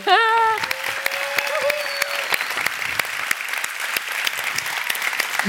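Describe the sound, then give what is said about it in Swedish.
An audience breaks into steady applause, dense rapid clapping that holds for several seconds; a brief whoop or cheer rises near the start, and the clapping stays loud throughout. “Eh, kan vi ge henne en applåd?”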